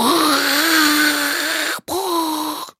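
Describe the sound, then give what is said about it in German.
A voice imitates an old washing machine filling with water: a loud, sustained, slightly wavering droning hum held for nearly two seconds, a brief pause, then a shorter repeat. “Also ich könnte das mal nachmachen von der Wasserzufuhr, von der alten Waschmaschine.”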